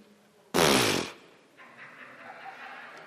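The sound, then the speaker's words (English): A single loud, buzzy fart blasts out for about half a second during a sermon, then cuts off, leaving a faint background murmur behind it. “I've talked about toots in a sermon.”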